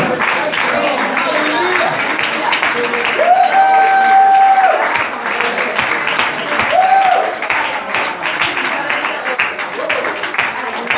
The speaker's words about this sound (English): Come on, clap your hands in the air.